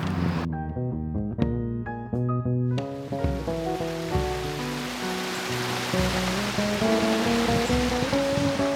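A mountain stream rushes steadily down over stones along a very long slope, a dense, continuous roar of water. Some ringing tones sound briefly at the start before the rushing takes over. No one speaks.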